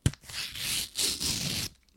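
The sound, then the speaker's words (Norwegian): Paper being torn open from the last door of a calendar gift, a short burst of rough ripping in two or three bursts lasting over a second, with a quick tap at the start and no talking. “Vi får ta den siste luka. Den tror jeg faktisk er i papir, den også.”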